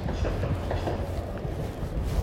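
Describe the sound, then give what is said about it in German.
A second train within a minute rumbles past, a steady low roar with faint rhythmic clatter of wheels on the rails, loud and continuous throughout with no talking. “Digga, wieso kommt da noch ein Zug?”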